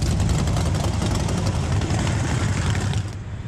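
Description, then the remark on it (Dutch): The engines of a large group of classic motorcycles rumble loudly and steadily, a deep continuous drone with throaty pulsing, before easing slightly near the end. “Nou, wij rijden natuurlijk klassieke motoren.”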